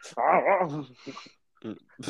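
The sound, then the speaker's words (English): A man's voice imitates a dog, letting out a loud, wavering growl, followed by a few shorter breathy, bark-like bursts. “this man started barking”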